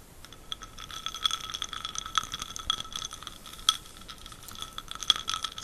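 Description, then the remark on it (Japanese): Ice and glass clinking in a whisky glass: a string of bright, high-pitched chinks at irregular intervals over a soft rattling of cubes, fairly quiet, with no voices. “涼しげな音がいいじゃないですか。”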